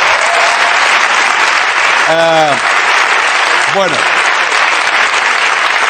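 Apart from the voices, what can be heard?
audience applause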